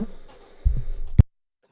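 A low, rough throat-clearing rumble lasting about half a second, ending in one sharp, loud cough, then silence. No talking.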